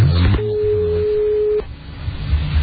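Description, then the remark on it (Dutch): A phone line rings out with one steady, mid-pitched ringback tone lasting just over a second, then drops to faint line hiss while the call stays unanswered. “neemt verder niemand op.”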